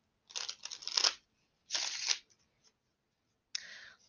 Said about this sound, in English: We're going to move over to the tarot, Mucha. Going to give it a few shuffles.